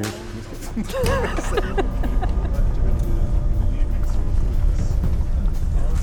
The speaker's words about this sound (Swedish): Nu är det dags att sluta snacka, hoppa in i minibussarna och vi ger oss av ut i vargskogen.